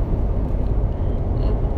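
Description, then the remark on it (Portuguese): Steady, dense low rumble of road and engine noise, like riding inside a moving car, constant and fairly loud throughout with no voices. “No carro.”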